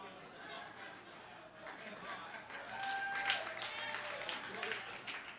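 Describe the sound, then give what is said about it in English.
An audience claps steadily throughout, a dense wash of many hands that swells louder midway, with scattered voices and a brief whoop rising out of the crowd. “Just keep clapping.”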